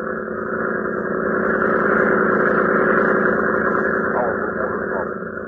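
A Red Cross cutter's engine drones loudly as the boat edges into a port gate, a steady low rumble with a throbbing harmonic hum that holds constant throughout, swelling slightly as it nears.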